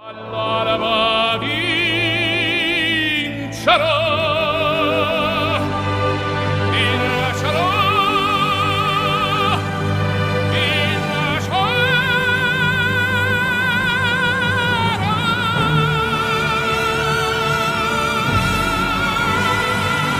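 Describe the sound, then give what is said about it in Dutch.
An operatic tenor sings a famous Italian aria over full orchestra, holding long, ringing notes with wide vibrato that swell and soar for the whole stretch, loud. “Maar als je toch een echte Pro Dorma laat zingen, klinkt het zo.”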